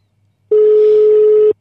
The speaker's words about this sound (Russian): Мне очень жаль. Он услышал про группу, решил не поднимать телефон.